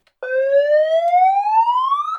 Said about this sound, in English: I'm not the hypocrisy police. I don't have. I mean, I have. I have a siren, right?